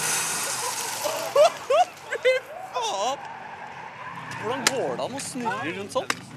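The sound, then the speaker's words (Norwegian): A powerful four-wheel-drive car revs and spins pirouette after pirouette, smoking up the whole area, its tires squealing in repeated wavering bursts over a steady engine roar, with voices mixed in among the noise. “Og det er én bil som utmerker seg. Den røyklegger hele området og drar piruett på piruett.”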